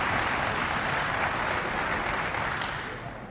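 Steady applause from a crowd in a parliamentary chamber, a dense clatter of clapping hands that holds for a few seconds and then begins to fade.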